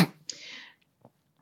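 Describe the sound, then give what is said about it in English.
A single quiet sneeze: a short burst followed by a breathy, hissing exhale lasting about half a second, then near silence with faint movement. “Bless you.”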